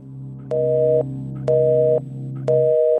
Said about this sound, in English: The second half is triggered by a dead signal tone, and we hear an abrupt shift to a new piano part accompanied by a choir of chanting male voices,